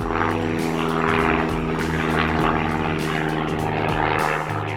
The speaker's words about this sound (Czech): A pak s vámi úplně náhodou spadne letadlo.